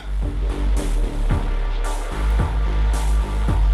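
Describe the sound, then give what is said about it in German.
A bass-heavy riddim instrumental plays on its own, with a deep sustained low end and crisp drum hits landing in a steady, even pulse about twice a second. “Was ihr hört, ist das ….”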